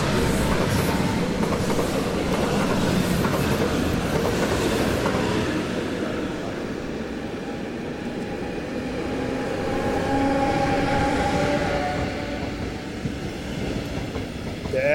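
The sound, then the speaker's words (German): A Regional-Express train on the RE 50 line from Fulda to Frankfurt rumbles past through a station, its steady roar and rattling wheels filling the air, with faint metallic squeals rising midway before the noise eases slightly and swells again. “So, und jetzt ist eigentlich jeder Bahnsteig mit stehenden oder durchfahrenden Zügen belegt.”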